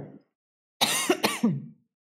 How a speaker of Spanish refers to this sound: Debe haber como mucho polvo en el ambiente porque yo no dejo de toser. Perdón.